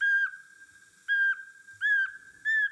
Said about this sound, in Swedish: Sen sparvugglans höstlätte.